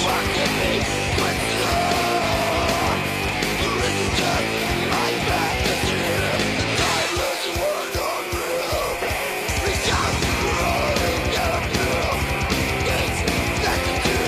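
A loud, dense technical death metal track with driving drums and a clean, less distorted guitar sound; the vocals are the most extreme part. The low end briefly drops away midway before the full band crashes back in.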